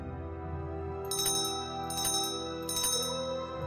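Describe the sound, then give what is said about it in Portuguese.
A small hand bell (campanella) is rung three times at an even pace, each strike bright and high-pitched with a short shimmering ring, over a steady low background hum. “Então Joel Santos dá três tocadinhas e o sino para de tocar.”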